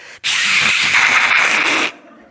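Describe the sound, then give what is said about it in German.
A person vocally imitates a car scraping its side along a huge stone pillar while reversing: a loud, sustained hissing scrape lasting under two seconds, then cutting off sharply. “Und ich habe schön beim rückwärts rausfahren so einen halben Meter von der Seite vom Auto lag komplett an einer riesigen Steinsäule abgeschabt.”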